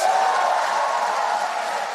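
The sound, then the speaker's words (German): Cheering from some rows of lawmakers in the European Parliament as President Roberta Metsola announces the adoption of the EU Nature Restoration Law, 336 votes to 300: a steady, dense wash of voices and clapping that holds at an even level throughout, with no single voice standing out. “Es brach in einigen Reihen im Europaparlament Jubel aus, als Präsidentin Roberta Metzola das Ergebnis der Abstimmung über das sogenannte Gesetz zur Wiederherstellung der Natur verkündete.”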